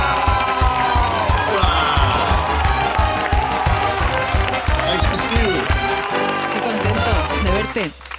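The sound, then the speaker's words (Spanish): The studio audience of the TV show El Hormiguero claps and cheers loudly and steadily to welcome American actor Bryan Cranston, mixed with upbeat music driven by a strong, regular beat, before the noise dips and fades near the end. “Un aplauso para él.”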